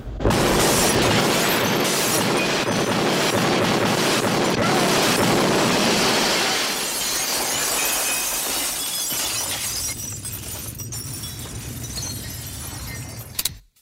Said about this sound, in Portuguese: cara, o gabarito deu a impressão de que rolou um efeito trapalhões na explosão ali. Você não ficou com essa impressão, não?